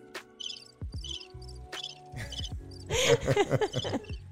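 Crickets chirp in short repeated bursts, a steady trilling pattern, with some rustling and brief human sounds mixed in toward the end.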